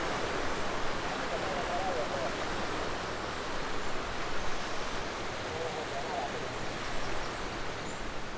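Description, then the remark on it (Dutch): Steady, rushing surf from sea waves along the Basque coast fills the scene, a dense continuous wash of noise with gentle swells in loudness and no voices. “De zee ruikt hier niet naar zee.”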